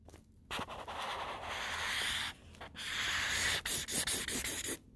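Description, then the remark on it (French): A pink marker scribbles hard across paper to cross out a big dot, a scratchy, hissing rub in long back-and-forth strokes that quicken into several short, rapid scrapes before stopping. No one speaks. “C'est un gros point, celle-là, je l'ai barré bien comme il faut.”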